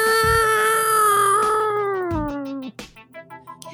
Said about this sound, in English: Meow.